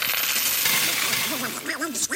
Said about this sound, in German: Onkel Dagobert schätzt den Klang der klimpernden Münzen